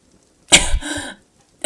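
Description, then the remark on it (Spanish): A harsh, raspy cough from smoke inhalation rings out inside a burning room, a rough burst lasting over half a second, followed after a short pause by the start of another hacking cough. “Comienzo a toser. Intento no hacer ruido, pero siento como el humo por fin está llegando a mis pulmones.”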